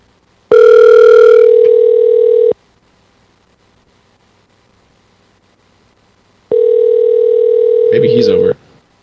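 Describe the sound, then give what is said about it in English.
An outgoing phone call's tone sounds twice: two loud, steady electronic tones about two seconds each, separated by a long silent pause, with a brief burst of noise as the second tone ends. “Uh, all right, we're calling him.”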